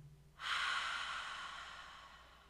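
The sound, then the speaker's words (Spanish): A single long, deep exhale of breath during a guided deep-breathing exercise, airy, rising quickly and then slowly fading over about two seconds, with no talking. “Inhala y exhala.”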